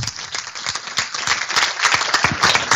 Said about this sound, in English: Ladies and gentlemen, come on, another big round of applause for our Club of the Year.